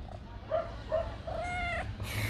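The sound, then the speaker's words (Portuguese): A female Egyptian cat named Eden, with blue eyes, meows three times in quick succession, short chirpy mews followed by a longer drawn-out one, over a steady low background hum. “Ela é uma gata egípcia, mesa. muito linda dos olhos azuis.”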